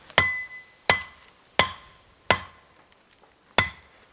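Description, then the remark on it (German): Five sharp, ringing chops strike in a steady rhythm about a second apart, with a brief pause before the last, each blow leaving a short metallic ring, as a man hacks a way through undergrowth; no voices. “Doch an vielen Stellen gibt es kein Herum. Er muss hacken und sägen.”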